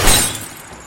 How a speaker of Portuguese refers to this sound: Então apareceu um cara, ele arrebentou o meu vidro Nossa. Nossa, do passageiro estourou o vidro, pegou minha bolsa e saiu correndo.